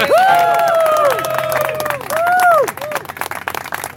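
A crowd of fans, partners, friends, sponsors and family cheers and claps at a runner's finish in New York City on 4 November 2023, with loud rising-and-falling whoops and shouts over steady, scattered applause that continues as the cheering fades toward the end.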